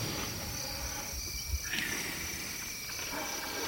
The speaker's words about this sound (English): listening to a group of sleeping elephants in Kenya,